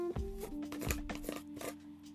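A small jar holding folded paper slips with children's names is opened for a name draw: a few short scraping clicks and crinkly rustles of paper slips in quick, irregular bursts, with a faint steady hum underneath and no talking.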